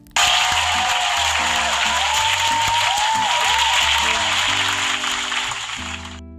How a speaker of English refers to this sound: Round of applause for you, motherfuckers.